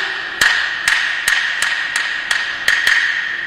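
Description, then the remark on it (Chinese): In a Chinese drama scene, a husband returning home knocks on the door, calling his wife to open it: eight sharp knocks in a steady, slightly uneven rhythm, the last two coming quicker, over a constant high-pitched background hum. No one speaks. “外面叫门，你是谁呀？”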